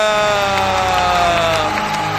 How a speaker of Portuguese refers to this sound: Olá, plateia, plateia, plateia, plateia! Aplauda, aplauda, porque olha quem está aqui, plateia!